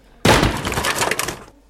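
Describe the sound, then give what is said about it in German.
A sudden loud clattering crash as a broom rack is kicked hard, with a jumble of rattling, banging pieces lasting over a second before cutting off. Harsh, with no voices. “Ich trete Vollgas gegen diese äh, Besenkonstruktion, hinter der er liegt, sodass es richtig scheppert.”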